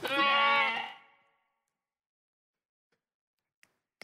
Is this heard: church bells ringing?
no